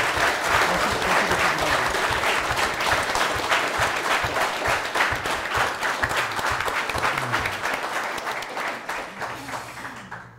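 Sustained audience applause: many hands clapping in a dense, crackling wash that stays loud for about ten seconds before tapering off, with a few voices faintly mixed underneath.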